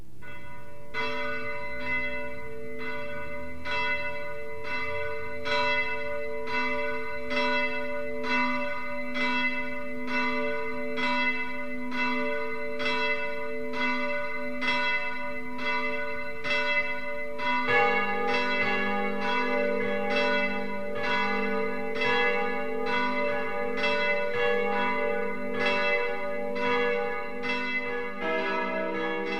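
Church bells of the former collegiate church Marie Himmelfahrt in Dietramszell, Upper Bavaria, ring the 12 o'clock midday peal in a steady, even rhythm of resonant strikes with long humming overtones; partway through, more bells join and the sound grows fuller. No one speaks.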